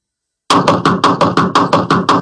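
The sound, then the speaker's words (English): About nine loud, heavy knocks in a rapid, steady rhythm, imitating someone pounding hard on a door. The knocking is forceful, with no talking over it. “I was mad because the knock on the door was really hard”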